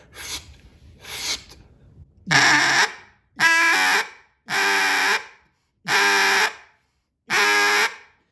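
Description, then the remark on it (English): A duck call is blown as a calling demonstration: two soft, breathy notes, then five loud, raspy, evenly spaced blasts of about half a second each, with no one talking. “DUCK CALLING LESSON: From Beginning to Field”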